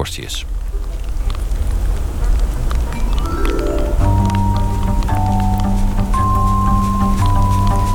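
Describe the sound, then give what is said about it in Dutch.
Steady, dense heavy rain pours down in a constant hiss, with the felt temperature near freezing. About halfway through, low sustained tones rise and hold beneath the downpour. “Het regent pijpenstelen en de gevoelstemperatuur ligt ergens tegen het vriespunt.”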